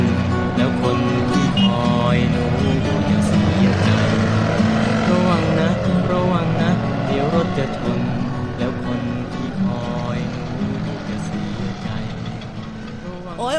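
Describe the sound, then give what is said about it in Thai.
Busy road traffic in a morning traffic jam with many cars, engines rumbling in a steady, loud wash of low hum and overlapping tones that carries on without a break, and faint voices mixed into the din. “เพราะว่าตอนเช้าวันนี้ไม่รู้เกิดอะไรขึ้น การจราจรติดขัดรถรามันเยอะไปหมดเลย”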